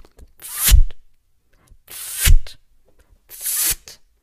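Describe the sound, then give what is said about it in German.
Three separate bursts of hissing gas as a shaken plastic deposit bottle of carbonated water is opened slightly each time, each burst rising and fading over about half a second, with short pauses between them, fairly loud, like a fizzy bottle cap being eased open. “Jedes Mal, wenn Jennifer die Pfandflasche ein wenig öffnete, machte es”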